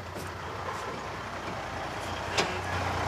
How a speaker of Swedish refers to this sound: Det är Helge Karlssons lastbil.